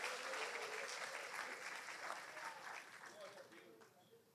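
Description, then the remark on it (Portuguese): A crowd claps steadily in sustained applause to worship Jesus, a dense mass of hands that holds strong and then slowly tapers off, with a faint voice underneath. “Merece adorar Jesus com a salva de palmas.”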